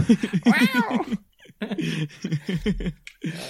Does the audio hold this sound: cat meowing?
yes